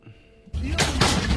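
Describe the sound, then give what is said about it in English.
After a brief quiet moment, loud, heavy blows pound against a door in quick succession, harsh, with a rattling, crashing edge to each hit. “Yeah, he's beating on this door here.”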